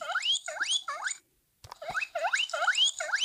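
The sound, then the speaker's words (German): Rats squeak from a children's sound book in quick, rising chirps, one after another in a steady stream, with a short silent break and a soft click before the squeaking resumes, fairly loud. “Ratten?”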